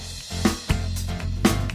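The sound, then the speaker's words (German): Lively Spanish-Latin American polka music plays, with punchy drum hits landing in a steady bouncing rhythm over a full, sustained low accompaniment, fairly loud. “Sie selbst äh, bezeichnet ihre Musik als äh, spanisch-lateinamerikanischen Polka”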